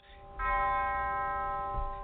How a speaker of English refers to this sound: It was a service filled with quiet poignancy, a tolling of bells,